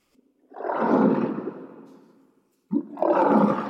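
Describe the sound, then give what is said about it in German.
A lion roars twice, loud: a long, rumbling, gravelly roar that fades out, then after a short pause a second roar begins abruptly, with no talking. “Krass wie ein Löwe.”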